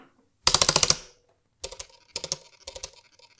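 Braille display pins on a unit called Poli snap up and down as it powers on: a loud, rapid burst of about seven clicks from the two jumbo braille cells on the left side, then, after a pause, three softer clusters of quick mechanical clicking from the braille line.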